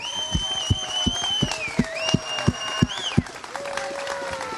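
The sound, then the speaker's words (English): A church audience applauds steadily, dense clapping filling the space while sustained musical tones and a regular thumping beat carry on underneath. The applause thanks the church's worship leader. “a huge round of applause again, just to thank him.”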